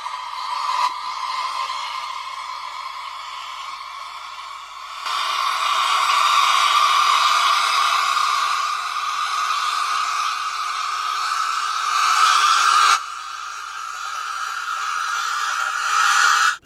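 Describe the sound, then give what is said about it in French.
A coffee machine runs with a steady, loud hissing whir and a faint tonal hum, its intensity stepping up and down in stages across the whole clip, with no voices. “il ajoute le bruit d'une machine à café.”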